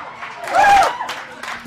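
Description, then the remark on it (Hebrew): A brief burst of crowd applause and cheering, a dense wash of clapping that swells to a peak in the middle with raised voices rising above it, then eases off. The crowd applauds a man's high-speed freefall drop, in which he broke the speed of sound without a motorized vehicle. “A high speed drop, and now you can see from the little dot, there's the applause.”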